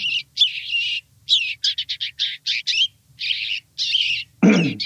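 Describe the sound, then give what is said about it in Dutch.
A house sparrow chirps over and over in a rapid, uneven series of short, bright notes, fairly close and clear, with one harsher, buzzier note near the end and no talking. “jullie zitten allebei goed, want het is, is eigenlijk gewoon een huismus”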